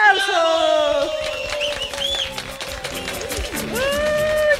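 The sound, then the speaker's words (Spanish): A crowd of more than four thousand people bursts into sustained clapping mixed with whoops and shouted cheers to welcome a young man, the noise holding steady throughout as voices rise and fall over the applause. “Recibimos con unos fuertes aplausos.”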